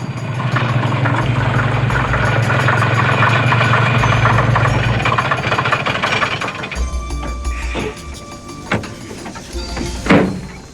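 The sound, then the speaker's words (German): A truck belonging to an acquaintance, in Citrus Grove, a small community in the California mountains: its engine rumbles steadily for several seconds, then quiets to a lower idle, followed by a couple of sharp knocks like a door opening or shutting. “Im Lastwagen eines Bekannten fuhren sie mit nach Citrus Grove einer kleinen Gemeinde im kalifornischen Bergland.”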